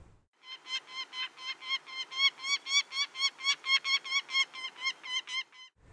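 Birds calling at dawn: a loud run of about twenty harsh, ringing notes repeated at a steady, quick rhythm, with no talking and no background noise.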